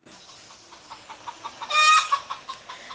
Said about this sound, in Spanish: Una mujer vio entrar en su corral una hermosa gallina negra